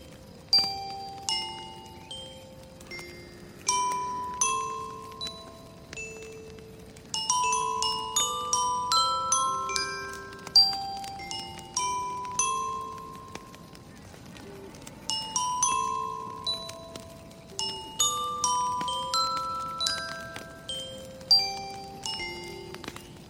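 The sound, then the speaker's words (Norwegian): A music box plinks out a slow, tinkling melody of bright metallic notes, each ringing briefly before fading, played alone for the whole stretch with no voices. “Um, da drar jeg fram min uh, spilledåse.”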